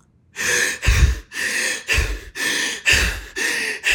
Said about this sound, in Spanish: Estamos sentados, no estamos haciendo nada, pero estamos sobreoxigenando. Así es como correría, así como, es como respiraría si tuvieras que huirle a un, a un león.